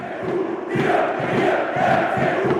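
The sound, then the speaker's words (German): About 17,000 Union fans on the standing terraces chant in unison during the second half of the match against Hertha, with their team a goal down: a loud, steady roar of massed voices with a rhythmic pulse of repeated phrases. “Seit einer Stunde werden sie dabei von etwa 17.000 Fans angefeuert.”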